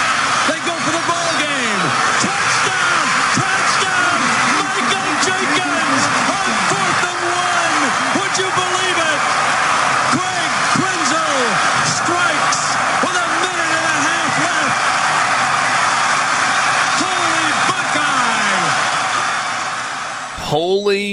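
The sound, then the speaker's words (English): A stadium crowd at an Ohio State road game at Purdue in 2002, with many Ohio State fans, roars and cheers steadily. It is a dense, loud wall of many voices with individual shouts rising through it, sustained for about twenty seconds before cutting off abruptly. “You hear that crowd, by the way? Yes, that's a road game.”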